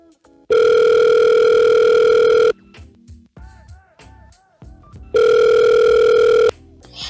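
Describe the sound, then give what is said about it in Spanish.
A phone call connecting to a shelter on the moor: two loud, steady electronic tones, each lasting a second or two, separated by a quieter gap with faint warbling line noise, heard alone without any talking. “Me parece que tenemos una llamada especial.”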